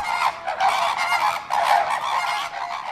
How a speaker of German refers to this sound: Aus dem Industriegebiet Kaiseraugst kommen wir wieder zurück in Zolli und sind wieder mit drin im Flamingo-Geschnatter.